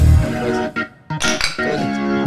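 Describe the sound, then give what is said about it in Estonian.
Glasses clink together in a toast, several bright chimes in quick succession, each leaving a sustained high ringing tone that hangs on between the strikes. “võtaks ka siia proosit proosid.”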